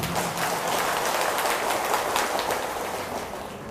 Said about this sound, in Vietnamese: nếu đây là việc mà quý vị có thể dễ dàng thực hiện được thì hãy dâng cao một tràng pháo tay để tán dương mình